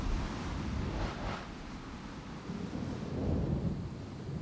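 A deep, continuous rumble of a thunderstorm rolls on steadily, heavy low-end energy swelling slightly near the end, with a brief hissy surge like wind or rain early on. No voices.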